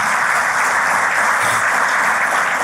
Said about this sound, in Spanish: Dale un fuerte aplauso a este Cristo maravilloso por el poder de su fuerza.